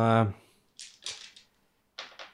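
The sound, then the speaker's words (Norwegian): A shell is loaded into a cannon: a series of sharp metallic clacks and scrapes, three in quick succession, then two more after a pause. A brief voice sounds at the very start. “Dere hører en sånn uh, kjent ladelyd fra de putter en granat inn i kanonen.”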